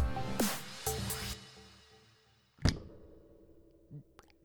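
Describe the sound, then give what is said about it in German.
A soft, dull pop from a beer bottle being opened, followed by a brief hiss and faint clinks, with no talking. “Das war ein schlechtes Plop, aber ist ja auch was.”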